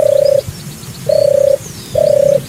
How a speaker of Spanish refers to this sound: Bueno, pues ahora la tórtola. Pero no cualquier tórtola, la tórtola europea. La tórtola europea suena así.